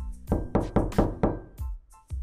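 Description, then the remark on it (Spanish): Several firm knocks on a door in a quick, uneven rhythm, fairly loud, each one a sharp thud with a short ring, with no voices over them. “Están tocando la puerta.”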